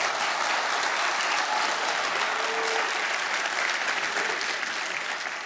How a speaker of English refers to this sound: Amen. Can we give the praise team a round of applause, please?